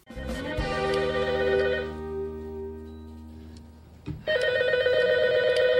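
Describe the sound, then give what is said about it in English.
An office telephone at Mr. Bing's office rings with bright, sustained electronic tones; the first ring swells and slowly fades, then a second loud ring starts abruptly near the end. “See, that'll stop when you pick up the phone.”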